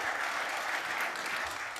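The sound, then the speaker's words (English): A round of applause: steady, dense clapping from a group of people, sustained at an even loudness for a couple of seconds and tapering slightly at the end. “Round of applause.”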